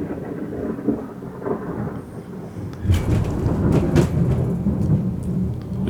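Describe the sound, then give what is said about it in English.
A deep, loud rumble of thunder rolls steadily, swelling after a few seconds into a heavier, rattling roar that shakes the office, with faint rain-like hiss and no voices. “we've got some thunder. that sounded like a big machine till we realized it was sun- thunder.”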